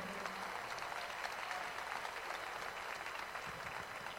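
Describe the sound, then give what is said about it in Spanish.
Steady applause from an audience, a dense, even patter of many hands clapping that stays at a constant level for about four seconds, with no voices standing out. “aplauso, por favor, nuevamente.”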